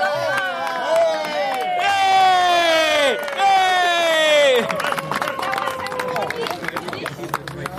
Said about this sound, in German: Applaus